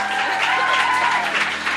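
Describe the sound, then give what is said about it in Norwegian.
Steady audience applause for the participants of a contest fills the moment, a dense wash of many hands clapping at an even, sustained loudness with no speech over it. “Jeg kan få en liten applaus her.”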